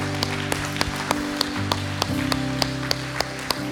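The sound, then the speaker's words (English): A crowd claps together in a steady, even rhythm after a prayer, sharp regular claps about three per second over sustained background music tones, moderately loud. “Come on, will you put your hands together? Just celebrate today.”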